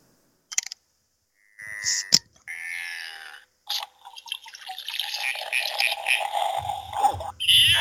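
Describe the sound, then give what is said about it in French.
A novelty Homer Simpson bottle opener clicks and pops as a bottle of Mac Tavish beer (5% alcohol, from Shawinigan, Québec) is opened, then plays a short, tinny cartoon-voice exclamation, followed by several seconds of steady crackly, fizzing noise. “À chaque fois que je, rouvre la bouteille, ben, il dit Oh, yes!”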